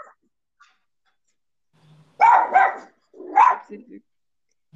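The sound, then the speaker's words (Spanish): A small female pet dog named Doña Tabata lets out a quick cluster of sharp, high barks, two in rapid succession and then another yappy burst with softer trailing yips, after a quiet stretch. “Ay, disculpen aquí, la doña Tabata es mi perrita.”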